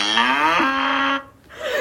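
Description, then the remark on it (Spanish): A cow lets out one long, drawn-out moo, loud, with a low, mournful tone that wavers midway. After a short pause, the start of another call rises. “Vaca triste. Vaca con depresión.”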